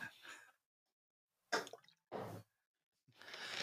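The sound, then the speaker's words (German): Water sloshes and splashes inside a water bottle raised in a toast, in four short, fairly loud bursts separated by silent pauses, with no one talking. “Prösterchen. Ja. Warte mal. Äh. Mit meiner Wasserflasche.”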